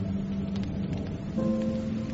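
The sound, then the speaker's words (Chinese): Steady rain patters down on a sand-and-gravel country path in a dense, continuous hiss dotted with small drop ticks, over a low sustained drone. There is no talking. “行走在沙石铺着的乡间小路上，雨点淅淅沥沥的打在他脸上。”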